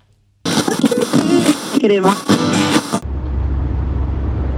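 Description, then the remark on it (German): Someone talks briefly, then a steady, low droning rumble of a car cabin on the move takes over, even and continuous with a soft hiss of road noise. “Sorry erstmal die Verspätung, aber ich bin jetzt gerade im Auto unterwegs, da habe ich mal zwei Minuten Zeit.”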